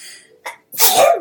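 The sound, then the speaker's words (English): A single loud sneeze: a short sharp intake of breath, a brief pause, then an explosive burst of air that trails off, with no one speaking. “Bless you.”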